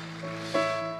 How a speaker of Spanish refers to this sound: Dele palmas fuerte al Rey de la Gloria, hermano. A su nombre.